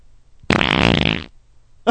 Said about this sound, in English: And … farting.